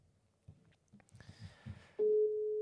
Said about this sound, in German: Es klingelt. Spannend. Es klingelt.